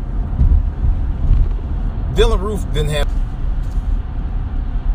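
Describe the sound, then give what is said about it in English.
Steady, loud low rumble of heavy, busy road traffic heard from inside a moving car, continuous throughout, with a man briefly speaking over it midway. “This traffic is a mess today, man. I've never seen this busy.”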